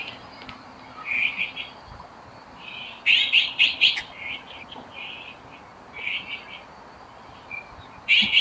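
Magpies and azure-winged magpies call in Beijing on an overcast day in January 2022, in several short bursts of harsh, high-pitched chattering, separated by quieter gaps over a steady low background hum. No one speaks.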